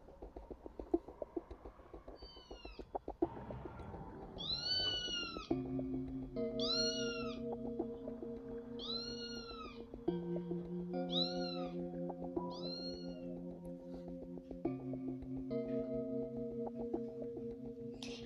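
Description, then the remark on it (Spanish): Black cats meow again and again in drawn-out, rising-and-falling cries, roughly every couple of seconds, over a steady droning musical backdrop that sets in partway through. “Eran fantasmas. ¡Bú! ¡Bú! Gatos negros”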